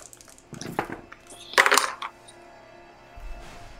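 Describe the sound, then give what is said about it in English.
Percentage dice clatter across a tabletop, a light rattle followed by a louder burst of tumbling clicks that settles quickly, with no voices. “Roll a percentage dice.”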